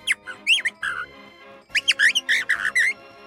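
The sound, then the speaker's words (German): A bird-call whistle held against the palate inside the mouth, blown in two quick bursts of warbling, squawky chirps, loud, with a short pause between them and no talking. “Ich tue mir jetzt das Vogelpfeifer rein, siehst du das so schwer?”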